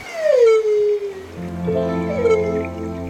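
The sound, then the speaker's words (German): A whale call from a huge blue-grey whale rising out of the sea: a long, moaning tone that slides downward, followed by a second wavering moan over a low, steady rumble, fairly loud, with no voices. “Das ist ein Walfisch, hört es?”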